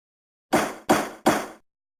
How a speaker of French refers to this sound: Mais d'ici là, commençons le deuxième segment, le au son de la cloche.